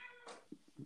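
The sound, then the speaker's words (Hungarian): A cat meows, a short harmonic cry followed by a few brief low chirping bursts, all within under a second and with no talking. “bocsánat, közben a macska benyávogott, ő is megerősített az információkat.”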